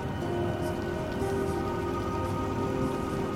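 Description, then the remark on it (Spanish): Water gurgles and trickles steadily from a nearly dry old city fountain, a continuous patter of small splashes and drips with a faint steady hum underneath and no voices. “El gorgoteo de una fuente casi seca.”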